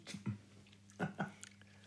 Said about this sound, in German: Ich schmatze noch mal eben kurz ans Ende.